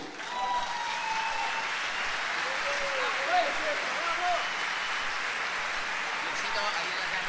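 Steady audience applause fills the whole stretch, a dense, even wash of clapping with a few faint whoops or cheers rising briefly above it.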